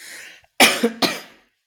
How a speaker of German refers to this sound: Genau, ich muss husten. Achtung. Okay.